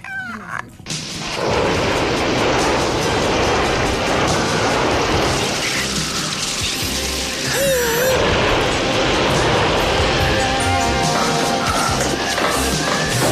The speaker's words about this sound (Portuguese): E então vejam lá se não há um ligeiro som no meio de, do som das formigas a levarem com o fogo, se não há um, um, um ligeiro som de.